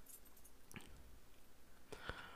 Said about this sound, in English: Well, these people have to deal with my crunching today because I was hungry and nauseous. So popcorn is the thing.